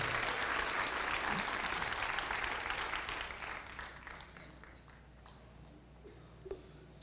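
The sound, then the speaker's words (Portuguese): A church audience applauds together at an evening sermon, giving applause to God, a dense wash of clapping that holds steady for a few seconds and then gradually thins and fades, leaving a few scattered claps at the end. “Se você tivesse mais ligado, você daria um glória a Deus bem forte aí, quizá até um aplauso ao único que é digno de receber, o cabeça do corpo, o cabeça da igreja.”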